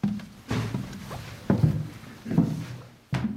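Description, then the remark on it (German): A pastor's heavy footsteps climb the steep wooden stairs of a church bell tower up into the belfry, four dull, booming thuds landing at a slow, steady pace of about one per second, with creaks and scuffs of the boards between steps. “schließt die Tür zum Glockenturm auf und steigt die steile Holztreppe nach oben in den Glockenstuhl.”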